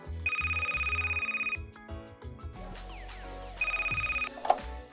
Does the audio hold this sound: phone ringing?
yes